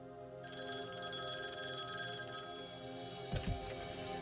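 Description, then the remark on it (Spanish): A telephone rings with a steady, bright electronic tone that sustains for a few seconds as kidnappers call three days after a kidnapping, followed by a brief clatter near the end, like the receiver being picked up. “Como lo prometieron, los secuestradores llamaron tres días después del secuestro.”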